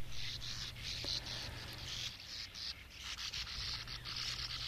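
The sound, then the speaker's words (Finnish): Sand martins calling: a continuous dry, raspy, almost toneless churring chatter that rises and dips briefly in loudness, with a low steady hum underneath and no voices. “Ääni on hauskan kuuloista, lähes soinnitonta rahinaa.”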